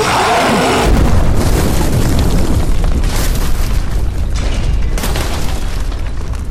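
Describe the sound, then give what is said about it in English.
A massive explosion erupts with a deep, loud boom, then rolls on as a sustained roar of rumbling and crackling as dust, rock and stonework debris spray everywhere, with no voices. “For just another moment until you guys hear a massive explosion.”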